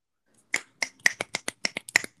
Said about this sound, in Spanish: ha costado pillar que son los chasquidos de Ana Locking.